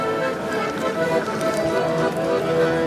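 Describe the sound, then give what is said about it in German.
Crisp, crunchy bites into a warm waffle, followed by a run of irregular chewing crackles over a steady background hum, with no talking. “Ich werde jetzt die Waffel essen.”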